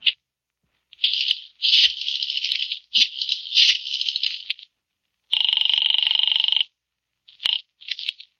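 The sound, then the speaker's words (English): A telephone rings with no voices: several rattling, buzzy bursts give way to a steady, loud ringing tone lasting over a second, then two short trailing rings. “I'll give him a call now.”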